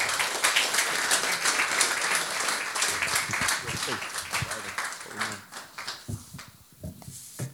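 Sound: audience applause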